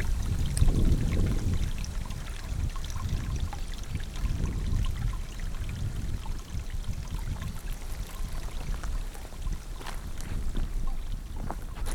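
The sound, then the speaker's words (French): A small stream flows steadily, a continuous watery rush with low burbling and occasional brighter trickles, and no voices over it. “il y a euh, un petit ruisseau qui coule là et qui avant était géré par euh, un syndicat qui s'occupait de la gestion de l'eau, donc avec des droits et des devoirs.”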